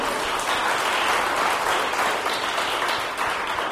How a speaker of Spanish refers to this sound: Y aquí no tenemos oro ni plata, pero aquí está el rey. Denle un aplauso al rey, por favor.